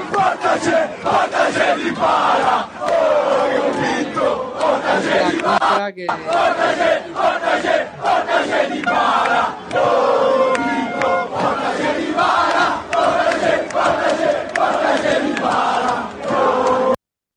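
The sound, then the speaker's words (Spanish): A large crowd of football fans sings a rhythmic chant in unison, loud and continuous, with a brief break partway through before the singing resumes just as strongly. “me gusta, me gusta esa canción con que, eh, o ese cántico, eh, si eres tan amable, Sound, para poder escuchar lo que me encanta.”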